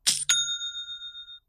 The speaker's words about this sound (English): Did you hear that? It's the sound of another sale on Shopify, the all in one commerce platform to start, run, and grow your business.